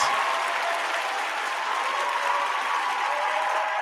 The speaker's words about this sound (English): Give yourselves a round of applause for it. Yes.